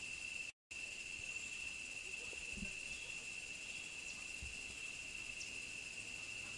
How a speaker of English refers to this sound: the sound you hear is the cicadas that are in full swing, given that it's the middle of the dry season